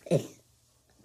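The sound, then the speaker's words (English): A child lets out one short, low, gurgly burp, loud but brief, followed by near silence with faint breathing. “Did you just burp?”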